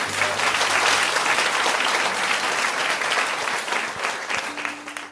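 An audience applauds with steady, dense clapping that holds strong for several seconds, then begins to thin and fade toward the end.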